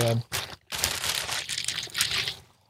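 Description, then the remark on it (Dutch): The plastic packaging of a newly bought cylindrical massage roller crinkles and rustles in a steady, bright burst of crackling for a couple of seconds, after a brief voiced sound at the start, then trails off into quiet. “hij zit nog in eh, verpakking”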